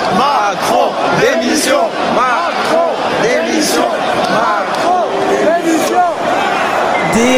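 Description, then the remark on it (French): A huge crowd at the Accor Arena, attending a public album listening, chants the slogan 'Macron démission' in rhythmic unison, thousands of voices rising and falling together in a loud, continuous roar that fills the whole stretch. “N'empêche que les fans ont kiffé visiblement, mais ce que l'on a entendu à un moment, eh bien c'est ça.”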